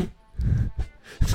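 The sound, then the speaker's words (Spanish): Someone mimics a resonant fart with their mouth, imitating the echoing sound of someone farting on the toilet: a few buzzy, low, sputtering bursts, the longest first, then a short one and a final blast, fairly loud. “Porque, ¿sabes el típico pedo este que suena?”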